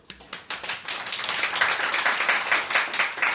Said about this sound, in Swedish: Vår tappra personal här var tekniker Gustav Sondén. En applåd!